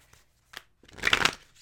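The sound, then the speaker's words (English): A deck of tarot cards gets a last shuffle for a life-purpose reading: a quick flick near the start, then a longer, dense riffle of papery fluttering that builds and fades, with no talking. “Okay, last shuffle.”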